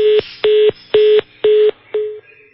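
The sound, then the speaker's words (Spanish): Five short electronic beeps from a telephone keypad, evenly spaced about half a second apart, loud, with the last tone slightly weaker and cut short. No one speaks. “El teléfono reacciona, ¿no?”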